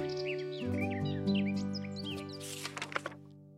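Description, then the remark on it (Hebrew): Several birds in a palm tree chirp and tweet in quick, overlapping calls, with a brief burst of busier chirping near the end, over a steady, sustained musical drone. “אתן שרות כאן בשבילי? היא שואלת את הציפורים.”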